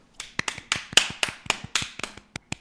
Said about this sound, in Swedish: Vet du vad, du ska få en liten applåd av mig